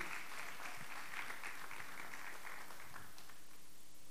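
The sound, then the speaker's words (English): An audience claps their hands in a dense, steady burst of applause to welcome a speaker one morning, many overlapping claps blending into a bright patter that holds for about three seconds before thinning and fading out. “And if you remember last time, he let you out early, so I think you should give him a big hand clap so that he remembers that.”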